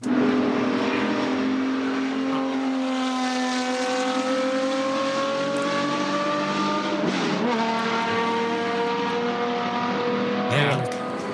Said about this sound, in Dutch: Nou, ik ben nu eh, met een hele oude raceauto bezig. Een 917 is dat.